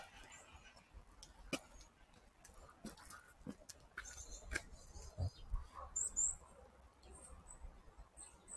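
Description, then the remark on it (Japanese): Quiet scratching and gnawing clicks from a small bird in irregular bursts, with a few faint high chirps. No one is speaking, and the bed of outdoor ambience stays low throughout. “あ、リスじゃない、鳥だ。あちっちゃい。”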